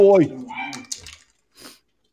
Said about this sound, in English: You got your dog making my dog bark. you, can hear, you can hear that?